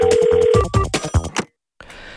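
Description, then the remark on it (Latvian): A telephone rings with a steady electronic tone and quick chiming bursts as a listener calls in to a radio program, then cuts to a brief silence followed by faint line hiss as the call connects. “Ceļu klausulu klausītājs jau zvana.”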